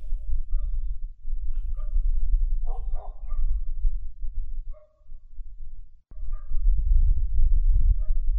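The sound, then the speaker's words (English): Dogs bark in short, scattered bursts, a few sharp yaps and a quick cluster in the middle, over a steady low rumbling background with no talking. “Not right now does not right now mean after the dogs are done barking or you don't want the dogs to bark.”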